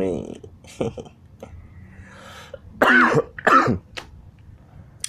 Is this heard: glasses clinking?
no